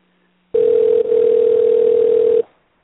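A steady telephone dial tone hums loudly for about two seconds as a call is placed to a guest, with a faint hiss of line noise and one tiny dip partway through, then cuts off. No one speaks.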